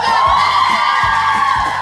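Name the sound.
audience cheering and whooping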